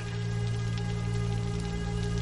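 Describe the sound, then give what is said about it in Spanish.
Steady rain hisses continuously, a dense even patter with a low droning hum underneath and no voices. “Llueve.”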